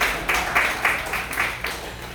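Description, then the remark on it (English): A crowd applauds for a cat named Zeppelin for a couple of seconds, a dense wash of hand claps with a loose, pulsing rhythm, steady and moderately loud, with no talking over it. “can, can you guys just do me a favor and clap for my cat so I'll stop talking about him?”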